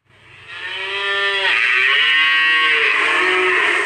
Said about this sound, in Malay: Lembu. Lembu.